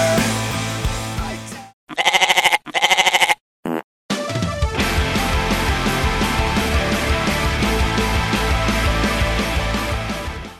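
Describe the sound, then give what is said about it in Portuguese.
A few loud, wavering goat bleats sound in quick succession, set off by short gaps, with dense music playing before and after them. “Estilo de vida: Homem abandona tudo para viver como uma cabra nos Alpes suíços.”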